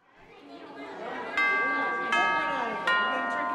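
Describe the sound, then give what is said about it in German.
A school bell rings out in three bright, sustained bursts over a busy murmur of many voices that swells steadily in the background. “Nicht die Klingel beendet die Stunde, sondern ich.”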